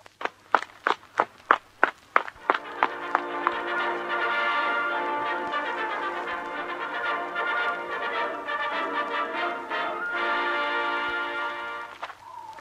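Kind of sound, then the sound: sound effect, footsteps walking uphill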